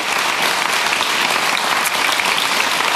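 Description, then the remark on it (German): Steady, dense applause from the studio audience of the TV talk show Nachtcafé, many hands clapping at once in a loud, even roar that holds for the full three seconds without any voices. “In der sind alle, die hier involviert sind, als sprechende Gäste, als klatschende Gäste, als moderierende oder eben zu Hause als Zuschauer, die sind schon voll in der Rentnerrepublik angekommen.”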